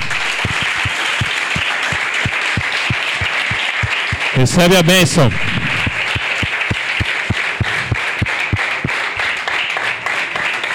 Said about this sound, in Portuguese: E sabe, a gente aplaude ao Senhor pela vida das pessoas, porque realmente Deus usa as pessoas para nos abençoar.